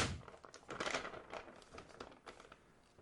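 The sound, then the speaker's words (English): A sheet of paper, an itinerary included in a PB Swag Bag monthly subscription kit, crinkles and rustles as it is unfolded and handled, with bursts of crisp crackling that taper off into softer, intermittent rustles. “And then lastly, there's a piece of paper in here which they've never done before.”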